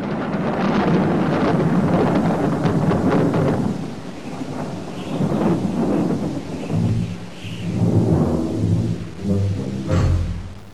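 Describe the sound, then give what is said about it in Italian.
A loud thunderstorm with heavy rolling thunder, rain and gusting wind, building to a sharp thunderclap near the end as lightning strikes a girl by a pier. “Lei è una bambina diabolica e quindi il cielo si vendica fulminato.”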